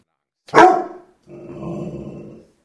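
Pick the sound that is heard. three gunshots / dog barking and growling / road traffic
dog barking and growling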